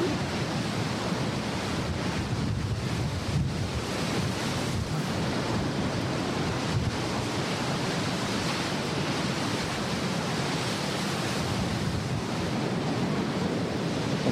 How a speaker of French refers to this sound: En silence non. on entend la mer, on écoute.